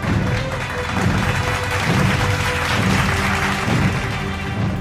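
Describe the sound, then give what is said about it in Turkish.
Dense, steady applause from a group fills about five seconds at an even, fairly loud level, with faint voice-like tones or cheers mixed in beneath the clapping. “Alkışımızı yaptık ve yeni bir bölüme başlıyoruz.”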